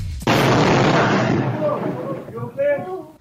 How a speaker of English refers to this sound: Now this uh, this happened Saturday in Hawaii. A woman was heading into her living room when a massive boulder crashed through a wall and missed her by just a few inches. Here's the security cam of the boulder crashing into the room.